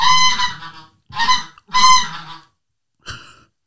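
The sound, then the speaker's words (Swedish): A goose call lure blows four loud, nasal honks in an uneven series, the last one shorter and following a brief pause, imitating a goose with no talking. “Då har vi väst som en gås.”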